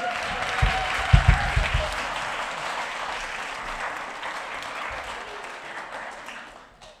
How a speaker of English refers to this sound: we'll give this lady a big round of applause.